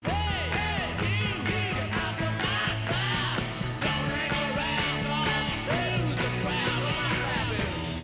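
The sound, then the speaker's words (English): A Blue Jay scolds a great horned owl in a rapid, continuous series of loud, harsh calls, each rising and falling, filling the whole stretch without pause. “Take this recording of a Blue Jay yelling its head off at a great horned owl.”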